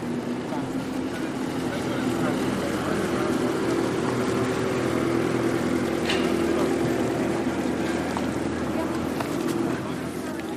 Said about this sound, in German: Ah, die Müllabfuhr. Typisches Geräusch. Die Müllabfuhr. es ist immer noch die Müllabfuhr.